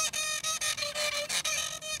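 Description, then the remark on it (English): Quick, rhythmic bowed scraping on a homemade twig instrument played with two bows, about a dozen back-and-forth strokes with thin pitched tones ringing through, steady, with no voices. “I can also play them with two bows.”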